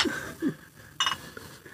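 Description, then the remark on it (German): Glasses clink together in a toast to the EuroBasket, one bright ringing knock with a short shimmering ring-out, amid a few soft low thuds of handling. “gut, gut, also dann Prost erstmal.”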